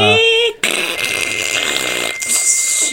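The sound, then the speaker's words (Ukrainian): A voice mimics a dial-up modem connecting: a short warbling tone, a brief cutoff, then a loud, steady hissing screech with a thin whine running through it. “через модемний інтернет вночі, бо він дешевше. там ще такий звук був.”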